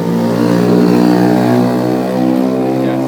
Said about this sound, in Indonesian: motor itu anjing banget dah